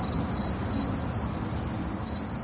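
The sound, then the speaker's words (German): Steady high-pitched cricket chirping, a played-in sound effect, pulses repeatedly over a soft background hiss, with no voices present. “Ich weiß nicht, ja, wie gut man das eingespielte Grimm-Zirp gehört hat, aber.”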